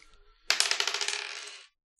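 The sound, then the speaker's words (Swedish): A single die is rolled across a hard tabletop in a quick burst of rattling bounces that gradually slow and fade over about a second, fairly loud, with no voices. “Eh, och eh, jag skulle vilja att ni bara slår ett, eh, en tärning.”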